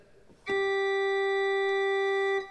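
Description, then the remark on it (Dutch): A steady organ tone, the fundamental with a fifth and an added third overtone, sounds alone for about two seconds with a bright, layered overtone color, starting abruptly and cutting off cleanly, loud. “Daar kan ik ook nog een terts aan toevoegen.”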